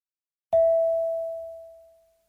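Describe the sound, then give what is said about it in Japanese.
A single clear electronic prompt tone chimes once, sharp at the start and then sustaining as it slowly fades out over about two seconds, with no voices around it; it signals the listener's turn to speak in a role-play exercise. “Speak after the tone.”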